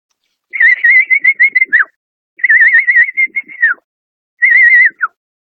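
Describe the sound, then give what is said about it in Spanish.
A person whistles a bird-call lure, imitating a bird in three warbling, trilled bursts at a steady high pitch, each ending in a quick downward slide, with short pauses between and no talking. “Voy a hacer un pequeño reclamo.”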